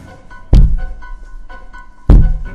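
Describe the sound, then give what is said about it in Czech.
Two heavy, dull thuds of a forehead striking a window pane, spaced about a second and a half apart, with faint tapping in between. Loud, with no voices. “Čukání vyplnilo ticho. Annie otočila své vyvalené oči k oknu. Byl to zvuk toho, jak čelo naráží do okna.”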